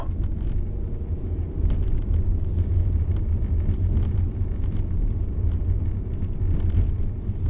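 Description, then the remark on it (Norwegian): Steady low engine and road rumble inside a moving car driving on a winter road with ploughed snowbanks rising outside, heading inland along the west side of Lake Mjøsa toward Raufoss, Norway; a continuous dense drone with faint tyre noise and no voices. “På utsida av bilen kommer snøbrøytekanten høyere og høyere opp i bilruta til lengre inn i innlandet jeg kjører.”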